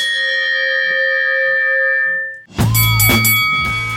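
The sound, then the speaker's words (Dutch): A small bell is struck once to start the Tournee Generaal closing round, its clear, bright tone ringing out steadily for a couple of seconds before being cut off by a loud burst of jingle music. “Dan tel ik aan een belletje.”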